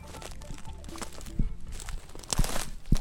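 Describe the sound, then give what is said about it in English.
Footsteps crunch over dry ground, with a few louder scraping steps at an uneven walking pace against a steady, noisy background rustle. “You can hear how dry that is.”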